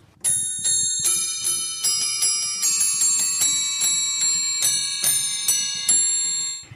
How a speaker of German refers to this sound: Es gibt ein Register, das eben nicht aus Pfeifen besteht, aus Metall- oder Holzpfeifen, sondern aus Schalenglocken.